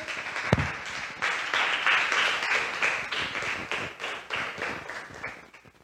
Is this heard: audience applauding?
yes